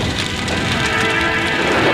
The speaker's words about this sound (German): Und wenn ich gerade dort unter den Bäumen bin, höre ich so ein eigenartiges Knistern. Der Dachstuhl bricht zusammen! Vorsicht, kommt auf die Funken auf!